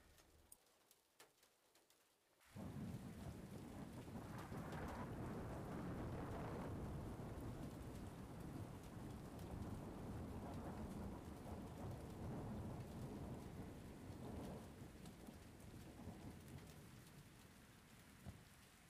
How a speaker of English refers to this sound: There is warning for another severe storm.